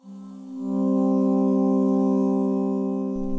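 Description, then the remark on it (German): A single sustained synthesized vocal tone from a vocal synth plugin set to Single Track, so only one side of the stereo recording plays, in mono. It holds steady and loud, its pitch sliding up slightly early on, then drones evenly with a rich, buzzy harmonic timbre and no talking. “Wenn du aber gar nicht so einen breiten Sound haben möchtest, dann wählst du einfach Single Track, dann wird einfach nur eine Seite davon abgespielt und zwar Mono.”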